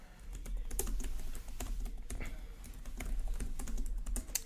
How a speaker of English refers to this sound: Sorry guys, that's me typing.